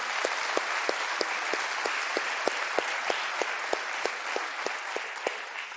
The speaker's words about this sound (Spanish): Bienvenidos, un fuerte aplauso para ustedes que están acá por primera vez.